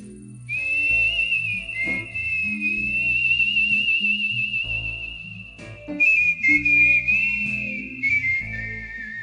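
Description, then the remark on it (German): A long, steady palatal whistle, made with air passing over the palate and cut at the teeth, holds one high pitch with slight wavers, then dips to a lower note near the end. It is fairly loud over a low rumbling background, with no talking. “beim palatal erzeugten Pfeifton geht die Luft über den Gaumen und wird an den Zähnen geschnitten.”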